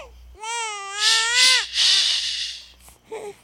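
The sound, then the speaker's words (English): A baby wails loudly in a dark nursery, a wavering, high-pitched cry that turns raspy and breathless, then breaks off and returns as a short, fading whimper. “Alicia leaned into the dark nursery, but quickly left at the sound of Giselle quieting.”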